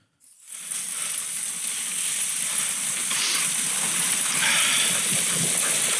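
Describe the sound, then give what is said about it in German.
A dog sled pulled by four or five dogs glides over a snowy frozen lake during a dog sled tour, its runners making a steady, gritty hiss and scrape that starts abruptly and runs on without pause. No voices. “ein Video äh, abspielen, damit man mal hört, was man hört, wenn man auf so einer ähm, bei so einer Tour unterwegs ist, weil das ziemlich nice ist, diese Geräusche.”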